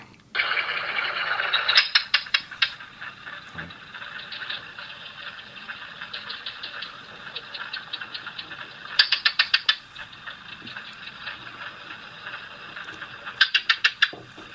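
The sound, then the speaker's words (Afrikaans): A barking gecko, a ground-dwelling gecko found in western Namibia, calling: short bursts of sharp, rapid clicks, repeated three times with long gaps, over a steady hissing background of night-time insects. “sommer eers gou net vir die luisteraars uh daardie geluid speel dat hulle kan hoor hoe klink 'n blafgeitjie.”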